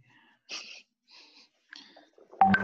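A cat makes a few short, breathy, wheezy bursts separated by pauses, ending with a brief louder tonal cry; otherwise quiet, with no talking.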